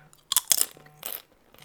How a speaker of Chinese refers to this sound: 你没有看过 YouTube 的 ASMR 吗？他就是离麦克风吃东西超近。我现在就是这样。如果你觉得，这个咀嚼的声音很不喜欢，那没关系。